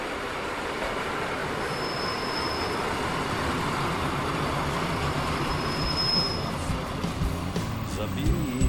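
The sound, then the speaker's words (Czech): A train rumbles steadily along the rails, heard from onboard as it climbs into the Rychleby Mountains on a ride to Javorník, with two brief high wheel squeals cutting through the continuous clatter and faint voices murmuring underneath. “tak si sedíme ve vlaku, šplháme do Rychlebských hor”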